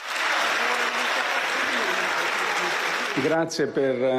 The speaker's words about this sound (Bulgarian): Благодаря ви за аплодисментите и подкрепата.